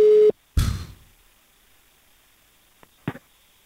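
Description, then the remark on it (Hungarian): A loud, steady telephone tone sounds briefly and cuts off abruptly, followed by a burst of line noise as if the call connects, then a couple of faint clicks. “Most, ha csörög, úgy vett fel, hogy...”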